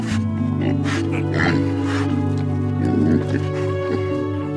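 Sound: pigs grunting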